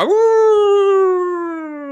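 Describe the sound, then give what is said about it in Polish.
A wounded wolf lets out one long, loud howl, a steady mournful tone that sags gradually in pitch and fades slightly toward the end, with no other sounds around it. “Wilk e, zawył.”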